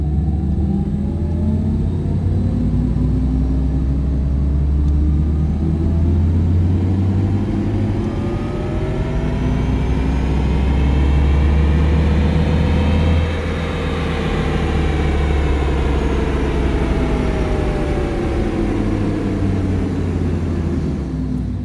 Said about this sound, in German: Und wir starten das Intro heute mal mit einem ganz besonderen Soundbite, wie ich finde, und zwar dem Sound von dem e-tron GT, wie er losbeschleunigt.